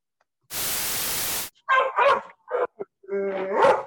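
A second-long burst of harsh static gives way to a dog barking as recording starts, several loud, uneven barks and yelps in quick succession, the last one drawn out into a whining howl.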